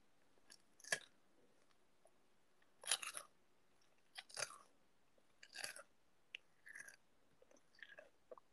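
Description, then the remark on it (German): Crunchy chewing of popcorn very close to the microphone, as food ASMR, with crisp bursts of crackling in irregular clusters of bites and chews, separated by brief quiet gaps. No one speaks. “Ja, das ist halt Popcorn.”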